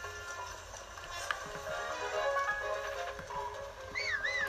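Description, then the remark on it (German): A horse's hooves clop steadily, then a loud, wavering neigh rises near the end, with faint background noise underneath and no talking. “Oder mein Pferd.”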